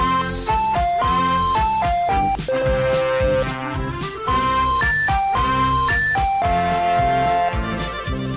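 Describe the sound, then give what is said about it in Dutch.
The theme song of the Carnaval Festival ride at the Efteling theme park plays: a bright, bouncy tune with a clear, jingly lead melody over steady oompah-like accompaniment, even in loudness throughout and with no voices. “Het antwoord op jullie vraag is natuurlijk Carnaval Festival van de Efteling.”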